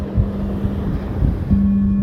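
Steady seaside wind rushes and buffets across the microphone, with a dull surf-like roar underneath and a faint low hum; no one speaks.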